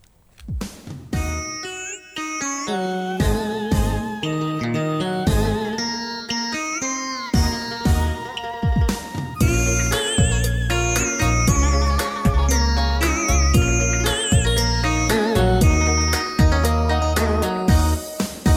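Instrumental intro to a listener-requested Vietnamese song played on a radio program: melodic lines over a steady, pulsing bass beat, full and loud throughout, with sparkling high accents and no singing or talking yet.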